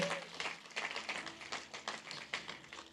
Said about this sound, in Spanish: ¿Cuántos creen que lo hizo bien? Si un aplauso al Señor.